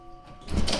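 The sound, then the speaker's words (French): A door swings open with a short rush of noise and a soft thud as someone moves through it, following a faint steady hum; no one speaks. “La porte est derrière nous.”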